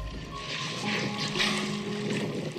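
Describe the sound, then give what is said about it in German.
Soft, steady water sloshing and lapping around a boat whose engine has just been switched off, with a faint low hum underneath, continuous for a few seconds, with no voices. “Nur noch ein leises Plätschern ist zu hören.”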